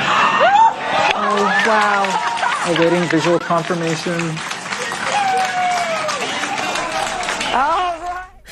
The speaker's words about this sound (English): And that was the sound of a lot of excited space scientists at the headquarters for NASA's DART mission as their spacecraft successfully collided with a far off asteroid.